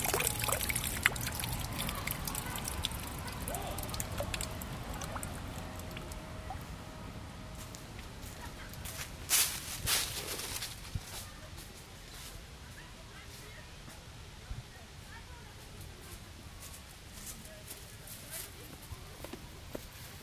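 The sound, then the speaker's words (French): Outdoor ambience in Belleville park at 3:45 pm on a cold day with poor weather, in a wooded area set back from the paths and surrounded by trees: a steady wash of trickling water and background noise, with occasional footsteps and faint voices, plus a brief louder rustle midway. “Donc là en fait on est dans le parc de Belleville.”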